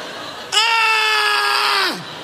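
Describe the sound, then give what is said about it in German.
An adult voice lets out one loud, sustained scream into a microphone lasting about a second and a half, mimicking a child's tantrum, then trails off with a falling pitch. “Am besten brüllst du nicht ins Mikrofon.”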